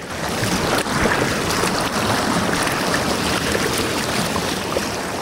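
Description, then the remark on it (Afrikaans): Steady, dense rushing water just above the Nali waterfall, downstream of the Wicksteed retaining wall, fills the whole recording, a loud continuous roar with a hissing top end and no pauses, unbroken for the full length. “Ons is nou net bo die Nali waterval en net stroom af van die Wicksteed keermuur.”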